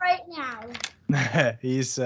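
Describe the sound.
A young boy who is about to go for a nap whimpers softly in the background, mostly buried under an adult talking in the foreground.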